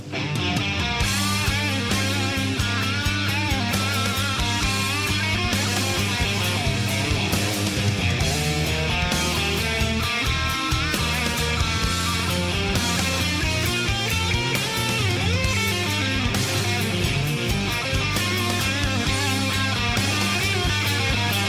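A loud, dense Danish rock track with a wailing electric guitar solo soaring over driving drums and bass, continuous for the whole stretch with no voices.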